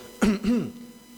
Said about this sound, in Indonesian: dehem temenan lho ya ojo dehem-deheman lho dadi wetenge mari sret ojo